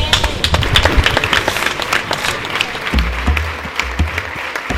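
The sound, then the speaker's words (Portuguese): Steady audience applause fills the whole stretch, a dense crackle of many hands clapping at a fairly loud, even level, with some low rumble from the crowd underneath. “E agora sim, aplausos a todos que nos estão muito”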